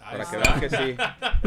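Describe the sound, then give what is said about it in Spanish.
Glasses clink together in a toast in a bright, ringing knock, with a few lighter taps following, while people talk casually over the sound. “Me late, pero que se escuche, ¿no?”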